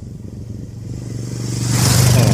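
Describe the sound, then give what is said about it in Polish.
A motorcycle engine drones and grows steadily louder as it is ridden fast to the shop, its buzzing roar peaking at the end as it speeds past. No voices, just the bike. “Tomaszek Leona motorem do sklepu poszarował. Wolno to on jeździć nie umie.”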